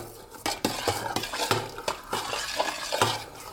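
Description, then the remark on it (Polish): A utensil stirs a thick mixture of fat and honey in a pot, scraping and clinking against the sides in irregular strokes, with a soft sizzling hiss underneath and no voices. “Przemieszam sobie więc jeszcze raz tłuszcz z miodem.”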